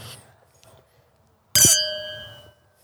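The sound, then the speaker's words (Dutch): A single bright clink of glasses touching in a toast rings out, its clear tone lingering and fading over about a second after a quiet stretch. “nog even proost, want eh, eh, die komt wel aan met een tweede.”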